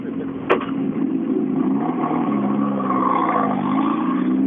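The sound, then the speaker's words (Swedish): A rally car engine revs steadily as it accelerates, its droning pitch rising and dipping over a few seconds, with a brief sharp click early on and no talking. “Det är bra med den här riskokaren.”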